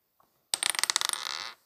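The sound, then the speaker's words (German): A die clatters across a hard table in a quick burst of sharp, rattling clicks that blur into a short rolling rush before it settles, fairly loud, with no talking; it lands on a six. “Also, wenn du jetzt eine 6 würfelst, dann wäre ich echt zert.”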